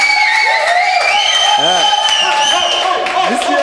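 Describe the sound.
A loud studio audience cheers and applauds continuously as the show's fitness trainer is introduced, with whoops and high shouted voices rising above a dense wash of clapping that fills the whole stretch.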